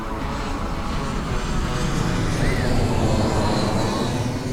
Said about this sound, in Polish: Biały samolot etiopskich linii lotniczych z zielono-żółto-czerwonym ogonem wylądował na lotnisku, a wtedy deszcz przestał padać.